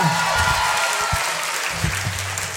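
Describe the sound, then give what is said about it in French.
A crowd claps steadily, a dense wash of overlapping handclaps that holds at an even loud level for a couple of seconds, with faint murmuring voices underneath. “Applaudissements”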